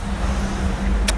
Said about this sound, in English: I apologize for the noise, but I'm on the street.